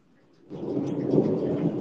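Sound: thunder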